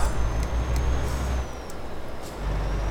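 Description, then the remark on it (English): A heavy truck engine is turned back on after stalling from an engine malfunction in the middle of a road in Australia. It rumbles loudly, sags to a quieter idle for a moment, then revs back up to a steady drone, with faint high hissing and clicks above it. “My truck is st stalled in the middle of the road. I'm turning the engine back on.”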